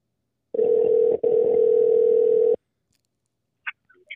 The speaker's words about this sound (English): See, y'all hear the phone ringing? Here we go. It's about to be a quick question. Hope you pick up the phone real quick.